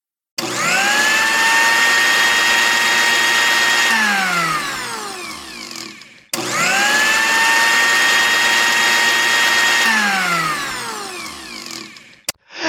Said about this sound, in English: one banana, 20 grams of peanut butter, one tablespoon of oat. Yes. A pinch of cinnamon Mm. pinch of allspice, a pinch of nutmeg, and a small handful of ice cubes. That sounds amazing. Let's put it in the blender.